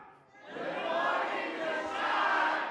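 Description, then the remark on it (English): A large audience at Church on the Rock shouts "good morning" together in answer to the speaker's greeting, a loud, sustained roar of many voices that swells, dips briefly, then rises again before fading. “So, when I say good morning, church on the rock, let me know you're here by screaming good morning,”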